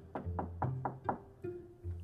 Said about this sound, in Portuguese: Finalmente, quando ela chegou à casa da vovó, bateu na porta.